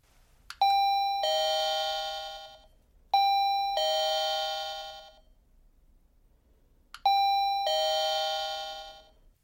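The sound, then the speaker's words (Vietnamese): The doorbell of a rented room chimes three times in a row, each a two-tone ding-dong with a ringing decay, spaced a couple of seconds apart, clear with no voices; nobody comes to open the door. “Anh nhấn chuông nhiều lần nhưng không thấy ai ra mở cửa.”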